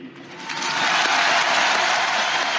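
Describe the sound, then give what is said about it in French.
A crowd applauds steadily, dense clapping building quickly in the first half second and then holding loud and continuous without a break, applauding a singer at the tribute by the Madeleine church in Paris, as invited by the President of the Republic. “Pour que le feu ne s'éteigne pas, je vous propose, où que vous soyez, qui que vous soyez, pour lui dire merci, pour qu'il ne meure jamais, d'applaudir Monsieur ….”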